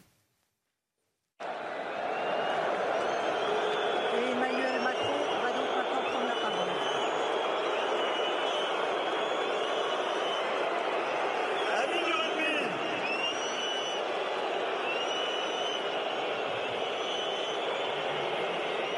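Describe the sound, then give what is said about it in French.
A large crowd whistles and jeers at the French President at the opening ceremony of the Rugby World Cup in a dense, unbroken roar, with many shrill, wavering whistles cutting through. It starts abruptly after a second of silence and stays loud throughout. “Bon, le président de la République a été sifflé. Écoutez les sifflets.”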